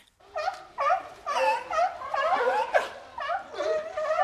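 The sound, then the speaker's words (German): Repeated honking, barking calls of seals in quick bursts, harsh and nasal, played from loudspeakers, playing steadily for several seconds with brief gaps between calls, fairly loud and without any talking over them. “Ah, äh, warte, äh, äh Seehunde, Robben?”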